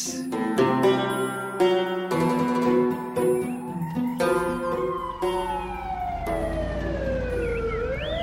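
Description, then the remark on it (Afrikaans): An ambulance that has come to a house to pick someone up sounds its siren, wailing loudly, its tone sliding up and down in long sweeps, preceded by a few blaring tonal blasts; no one speaks. “Wat het die ambulans by jou huis gemaak? Die ambulans was hier om my op te tel.”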